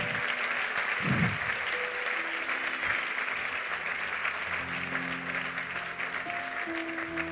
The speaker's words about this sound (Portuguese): Você pode aplaudir o Senhor com muito mais força.